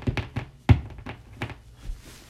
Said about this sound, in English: I like picture myself banging on my walls and my window, like with the back of my hand, like my fingertips, like, like hitting the back of the window, kind of like this sound. you know, and then me, my fingers like against the wall,